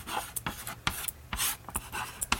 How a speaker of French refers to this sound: Je vous rappelle que toutes ces équations dont vous entendez la craie crissée sur le tableau sont en direct, hein, sur en vidéo.